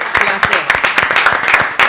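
A burst of applause for a band, many hands clapping in a dense, irregular patter at steady loudness for a couple of seconds, sounding full like a small crowd.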